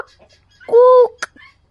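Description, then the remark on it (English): A person imitates a duck with one loud, nasal, drawn-out quack, followed by a brief sharp sound and a faint breath. The imitation stands alone, with nothing else underneath. “I'm sure he's going to grow up to be a happy, well adjusted duck. Quack! Quack!”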